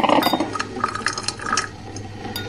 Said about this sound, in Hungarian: Majd akkor, ha meghallja a kávéfőző hangját. Térdei közé gyűrte a paplant, oldalára fordult, és már majdnem elbóbiskolt, amikor meghallotta a kotyogást.